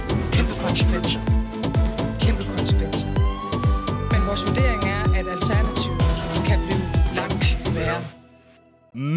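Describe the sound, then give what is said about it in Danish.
A loud, punchy protest battle song with voices singing over a driving, steady beat, a siren-like tone sliding through the middle, before the song cuts off abruptly near the end. “… slagsang. Her er det, det er …, der har produceret den.”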